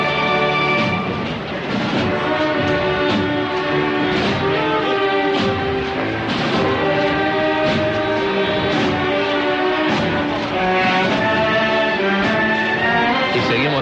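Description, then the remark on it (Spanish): The municipal band Maestro Soler of Martos plays the slow processional march "Angustia Madre", sustained chords of horns and brass swelling over a steady, measured drum beat, loud and continuous throughout with no talking. “escuchando Angustia Madre de mano de, la banda municipal Maestro Soler de Martos.”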